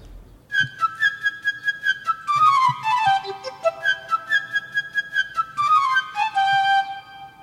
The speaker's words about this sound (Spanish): Es un cuento musical cada personaje está representado por distintos instrumentos de la orquesta. El tema del pajarito es interpretado por la flauta.